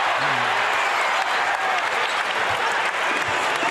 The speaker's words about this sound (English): This one's in the balance. Utah 96, Chicago 93, two to play. Crowd chanting, let's go Bulls.